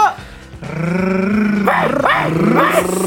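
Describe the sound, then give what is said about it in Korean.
Human voices imitate dogs, starting with a sustained growling tone and breaking into three loud, yelping barks near the end, at the opening of Dekira, a weekly Thursday online concert on Kiss the Radio. “매주 목요일마다 열리는 온택트 콘서트, 데키라의 멍멍이들이죠.”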